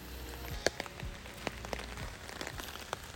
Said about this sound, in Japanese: というところでまあ、雨の中になりますけれども